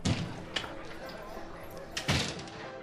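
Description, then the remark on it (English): A door opens with a couple of dull wooden thuds, one early and a heavier one near the end, over a low rumble of background noise. Holmes opens the door of the Alpha, a pub, from a cold, dark winter street. “Holmes opened the door and we went in.”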